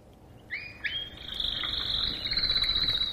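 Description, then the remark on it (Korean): A canary sings, opening with two quick rising whistles and then holding a long, bright, high-pitched trill that carries steadily to the end. No one is talking. “카나리아 소리예요.”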